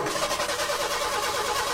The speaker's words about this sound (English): Summer means go, go, go. But you can't go if your car won't start.